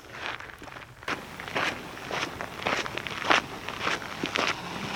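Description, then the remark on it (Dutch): Steady footsteps crunch over a rough, leafy or gravelly path, fairly loud, at an even walking pace with no one talking, as people walk almost into a forest. “We lopen weer bijna het bos in.”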